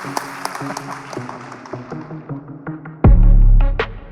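A crowd applauds at a stage event with Nigerian tech figure Bosun Tijani, dense, steady clapping mixed with some tonal background sound. About three seconds in, a sudden loud, low-pitched swell surges in over the clapping.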